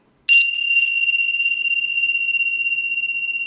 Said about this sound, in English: Oh, we're going to close with the gong, with the bell.